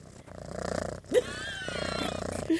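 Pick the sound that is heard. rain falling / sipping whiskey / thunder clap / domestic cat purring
domestic cat purring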